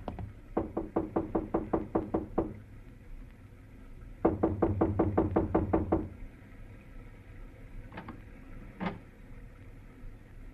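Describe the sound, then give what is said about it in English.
Two rapid bursts of sharp knocking on the door of apartment 1A at the Winthrop Arms apartment hotel on Havenhurst Drive, about a dozen raps each, fairly loud, followed by a couple of softer isolated thumps. No one speaks. “I went inside and up to the door.”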